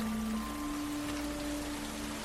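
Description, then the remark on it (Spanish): Steady rain falls in a continuous, even hiss, moderately loud, with a faint low electrical hum running underneath and no voices. “Está lloviendo, me voy a caminar y en otro momento seguimos charlando.”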